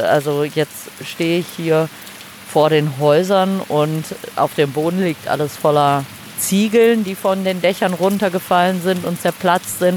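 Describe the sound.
Steady rain hisses in the background throughout while someone speaks up close over it, the patter fairly soft but continuous.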